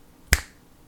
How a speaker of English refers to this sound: Then she held up her hand and she clicked her fingers.